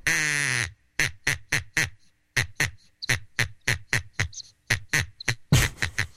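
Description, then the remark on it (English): A duck call sounds loud: one long drawn-out quack, then a steady run of about fifteen short, sharp quacks in quick rhythm, with no talking. “You have this duck story, you don't use your duck call.”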